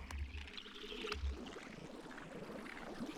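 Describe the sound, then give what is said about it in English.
Running tap water bubbling and gurgling steadily, a continuous dense wash of bubbles with a couple of low thumps near the start, and no voices; the bubbles are put through a phaser and a small resonator. “um, I probably turned the tap on.”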